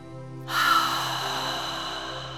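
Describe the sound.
An ocean breath: a long, breathy exhale through the mouth pushed through a constricted throat, producing a steady ocean-like hiss that starts abruptly and holds for about two seconds, moderately loud, with no talking.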